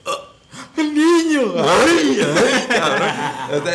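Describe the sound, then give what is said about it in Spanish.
A person imitates a baby's burp with a loud, drawn-out, wavering vocal croak, preceded by a couple of short hiccup-like sounds and trailing into something like a chuckle. “Ahora, hasta, hasta cuando tuvo un eructo de”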